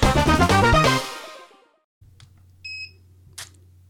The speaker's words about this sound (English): those sounds you heard at the beginning of this particular segment come from the Braille Me Braille display